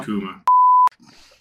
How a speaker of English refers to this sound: there you go. Beep.